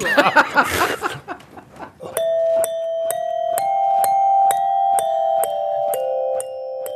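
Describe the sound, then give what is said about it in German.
Brief laughter, then a ping-pong ball spat by mouth onto a glockenspiel taps out a slow melody: about a dozen evenly spaced ringing notes, each a sharp click with a lingering metallic tone, clear. “spiele ich mit dem Mund quasi ich sage jetzt einfach mal das Wort, ich spucke mit dem Tischtennisball auf das Glockenspiel”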